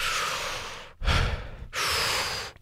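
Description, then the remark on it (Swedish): Forceful breathing exercise, loud: a long exhale, then two more strong breaths in quick succession with brief pauses between, no talking. “Av att bara jobba med det här andningssättet så börjar de svettas.”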